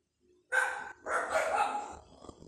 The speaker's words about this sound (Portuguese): Cachorro do vizinho, acho que o vizinho chegou quando ele chega de automóvel. Os três cachorrinhos latem. E tem dia que é uma bagunça enorme aqui, o barulho deles aqui, né?